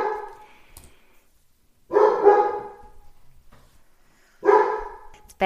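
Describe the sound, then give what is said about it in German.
The speaker's dog barks three times in separate, spaced-out bursts, each a loud, full bark with quiet gaps between, and no one talks over it. “bellt, mein Hund, äh, ich glaube, ihr hört es nicht, ähm, aber äh, das, er bellt einfach zustimmt, er bellt einfach ich zustimmt, nicht, aber ich ähm, glaube, weil er mir da, genau”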